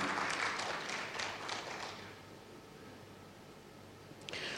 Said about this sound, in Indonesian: Berikan tepuk tangan untuk kebenaran ini.